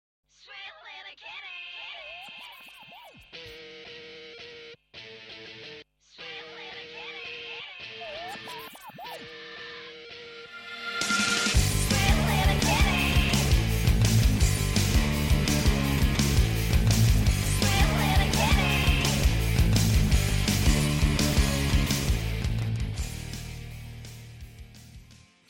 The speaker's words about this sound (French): Nous vous proposons d'écouter une chanson qui parle de la vie citadine d'un chat errant.